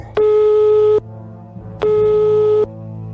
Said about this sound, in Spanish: Y nosotros sí que le llamamos al teléfono.